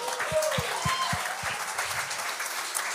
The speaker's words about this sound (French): Ah, ben merci. On l'applaudit.